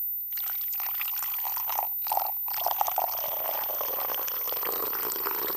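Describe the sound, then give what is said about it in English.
Coffee pours steadily into a red cup, poured starting low and then raised higher, a continuous splashing stream with a bubbly, gurgling tone that shifts as it fills, lasting about five seconds with no voices. “Just the poor alone. And later, when when you hear this, you're going to re-enjoy your cappuccino.”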